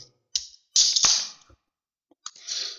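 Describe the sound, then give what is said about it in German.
A Polish beer can is cracked open: a sharp metallic click, then a bright fizzing hiss, and after a short pause a second softer hiss of escaping gas. No one speaks. “Das war das äh, zischende Öffnen einer wunderschönen polnischen Bierdose.”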